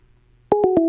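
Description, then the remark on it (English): After a moment of near silence, loud electronic phone dialing tones start abruptly as a phone call is placed, a steady two-pitched beep broken by three quick clicks in a rapid sequence, with no talking. “I turned up phone lines off while we call Miami John”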